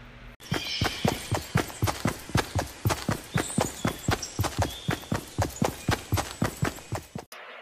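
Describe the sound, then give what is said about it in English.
A sound effect of horse hooves: a steady run of clip-clops, around two dozen sharp, evenly spaced knocks at a brisk trotting pace, fairly loud, with no voices or other sounds. “That's the sound of me running away from your kids when they start getting all ratchet and shit.”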